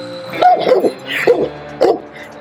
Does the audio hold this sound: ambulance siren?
no